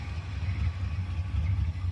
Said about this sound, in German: Der 455 Rocket ist so ein ikonischer Motor. Und er ist von Chevrolet. Und eigentlich ist der 455 Rocket, wenn man ihn richtig benennt, ein Oldsmobile 455.